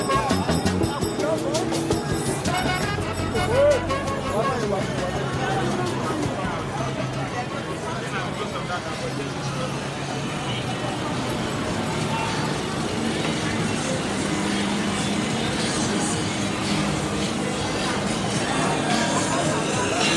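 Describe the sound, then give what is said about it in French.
Busy city street ambience in Lagos, recorded for a Radio Grenouille production, with steady traffic rumble from cars and buses, a murmur of crowd voices and chatter mixed throughout, dense and continuous at moderate loudness. “Uh, an extract from this uh, Radio Grenouille production in Lagos, a short ex extract of uh, what I had the chance to record there.”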